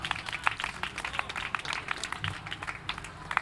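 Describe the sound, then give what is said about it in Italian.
Audience applause for an accordionist: a dense, steady patter of many hands clapping at once, crisp and fairly soft, holding an even level throughout with no voices over it. “… alla fisarmonica, vi chiederei un, un applauso, grazie.”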